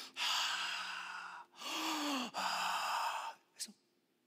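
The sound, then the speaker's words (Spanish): A slow, deliberate breathing sequence as a pronouncing of the name of God, Jehovah: three long, airy breaths drawn in and let out, followed by a short, sharper exhale, with no talking. “El nombre de Dios, si lo pronuncias, es tu respiración.”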